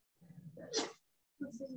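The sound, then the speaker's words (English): A single sharp sneeze bursts out with a breathy hiss, with a voice heard just before it and again shortly after a brief pause. “Bless you, bless you”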